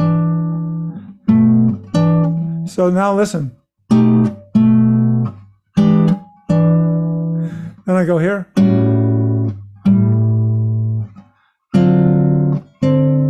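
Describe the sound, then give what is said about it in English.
Guitar plays a string of short chord intervals, each struck and left to ring briefly before the next, about a dozen in a steady sequence, with a man speaking a few words between them. “So this is a quick way for you to start seeing chords by just looking at their parts, just little intervals.”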